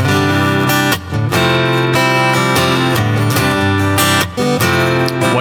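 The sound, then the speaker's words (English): A bright, trebly acoustic-electric guitar plays a poppy ballad-style passage, loud, strumming steadily with brief dips between phrases and no voices over it. “So a song like "…" to me sounds very more poppy and trebly.”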